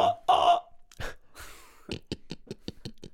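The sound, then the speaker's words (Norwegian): A person imitates a pig, with a few loud, breathy snorts followed by a quick string of short, rhythmic oinking grunts, with no talking. “Det er en gris.”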